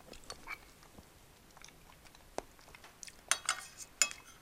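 Wet chewing of homemade spaghetti during a lunch break, with soft, irregular mouth sounds and slurps, joined by a few sharp clinks of cutlery against a dish near the end. No one speaks.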